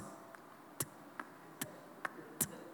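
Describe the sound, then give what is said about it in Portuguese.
A red clock in an office ticks steadily at about two and a half beats per second. Sharp clicks alternate between louder and softer strokes over a quiet background hum, with no talking. “Eu lembro uma vez que eu comprei um relógio vermelho super bonito para colocar no meu escritório, e eu coloquei lá, cara, ele ficava assim.”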